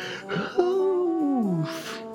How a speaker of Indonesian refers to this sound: Bekerja di Malaysia itu balik lagi kan nafasku pendek. Sebentar kita tarik nafas dulu.